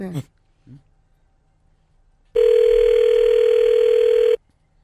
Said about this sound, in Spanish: Compadre, le vamos a marcar el número que nos diste nomás.